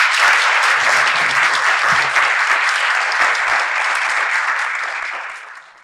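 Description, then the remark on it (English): A crowd applauds a roundtable discussion at the end of an event, many hands clapping in a dense, even roar that holds for several seconds before tapering off at the end. No one speaks over it. “And please, last applause for our roundtable.”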